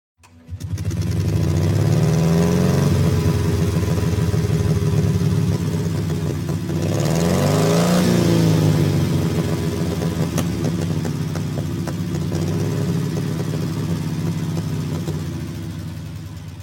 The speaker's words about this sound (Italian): Insomma, il motore boxer di BMW Motorrad compierà 100 anni fra 3 anni, un motore che all'inizio suonava così